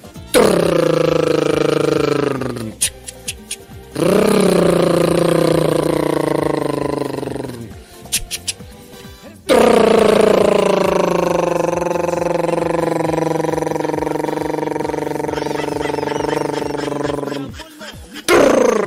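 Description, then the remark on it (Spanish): A voice imitates the engine brake of a cargo truck going downhill: three long, loud, throaty rumbling bursts with a wavering, gliding pitch, separated by short pauses, alone. “Cuando el, el, camión de carga va en bajada, tiene que poner un freno llamado de motor.”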